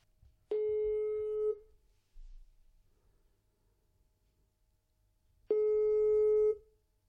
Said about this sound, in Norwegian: Vi skal rett og slett bare ringe og høre hvordan det går med Petter.